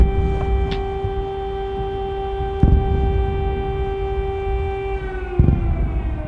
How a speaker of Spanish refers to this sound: Las sirenas alertando sobre bombardeos no han parado.